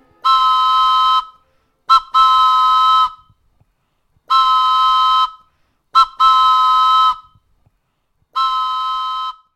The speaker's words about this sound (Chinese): 于是无聊的他拿起了笛子，用力吹响了几声。